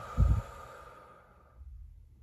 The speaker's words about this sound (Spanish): Con todo mi corazón, cerramos esto con una respiración profunda, inhalando y exhalando.